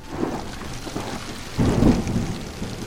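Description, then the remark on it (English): Steady rain hisses throughout while a deep roll of thunder swells in the middle and fades out. No voices, just the storm. “I've got little uh, rain sounds in the background that you can hear.”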